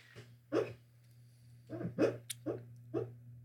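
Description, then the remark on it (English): A dog that is dreaming lets out a series of soft, muffled woofs, five short bursts in an irregular rhythm, muted like barking in its sleep, over a low steady hum. “That's my dog's. He's he's dreaming.”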